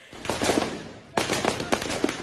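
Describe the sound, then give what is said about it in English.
Two rattling volleys of gunfire in Mogadishu, Somalia, each a cluster of sharp cracks with a brief lull between them, with a dense, echoing rumble behind the shots. “Gunfire in Mogadishu is not exactly unusual.”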